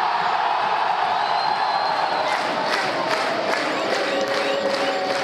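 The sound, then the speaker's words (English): A huge stadium crowd at a Chapecoense home football match in Brazil roars continuously in the 71st minute, remembering 71 community members who died the year before. Massed voices chant and cheer at full volume, with sharp whistles and shouts rising above the dense, steady wall of sound. “The loudest sound of the night came not with the goals or the final whistle, but at the 71st minute of the match.”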